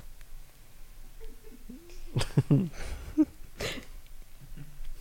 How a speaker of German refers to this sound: das ist schlimm, wenn ich husten.